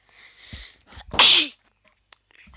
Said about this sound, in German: Oh Gott, sorry, Leute. Ich habe gerade geduscht. Also, deswegen ich, muss ich jetzt einmal niesen.